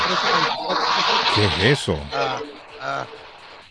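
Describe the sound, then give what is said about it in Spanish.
A loud, harsh whirring like a blender churning a milkshake roars for a couple of seconds, then cuts out as a voice asks a short question. “Están haciendo leche batida, suena así como una leche, una, máquina. Una, batidora.”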